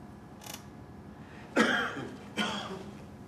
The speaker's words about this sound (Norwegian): Vi lyttet til stillheten, som ikke var stille. Og inni denne ikke-stillheten lød plutselig et host. Et forsiktig host. Et host som dekket over en stor, rumlende stemme.